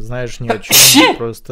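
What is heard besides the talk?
sneeze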